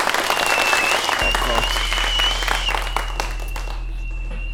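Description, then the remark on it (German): A crowd breaks into sustained applause, dense clapping filling the space, with a faint steady tone and low hum running underneath. “Meine Damen und Herren, unsere Prophetin, wo ist Ihr Applaus?”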